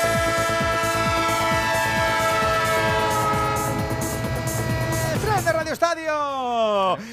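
A train sound effect for the Onda Cero radio segment 'El tren de Onda Cero', with a loud, sustained horn blaring over rhythmic rolling clatter; near the end the horn bends downward in pitch as it passes, then rises again briefly.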